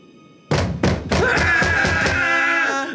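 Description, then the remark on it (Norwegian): Three sharp knocks on a door in quick succession in the evening, followed by a sustained ringing, music-like tone with a few more soft thuds beneath it. “Senere på kvelden, mens guttene satt og koste seg med maten og en god rødvin, banket det plutselig på døren igjen.”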